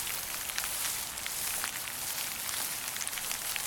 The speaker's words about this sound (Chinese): 原本安安静静的森林，突然热闹了起来。有下雨的声音，也有动物慌慌张张的叫声，还有动物们四处乱跑、移动的声音。